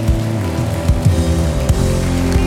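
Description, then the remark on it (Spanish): A crowd gives loud applause to the Lord, clapping steadily, a dense patter of many hands that keeps going throughout, while sustained musical tones play underneath. “Vamos, denle un aplauso bien fuerte al Señor.”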